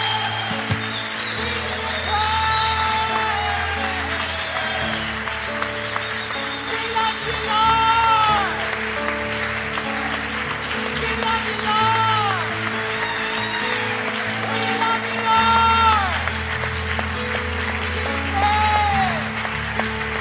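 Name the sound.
audience applause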